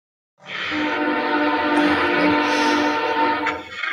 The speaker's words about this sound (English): Oh shit! Train's running through me. Um, it's gonna wait for it to stop.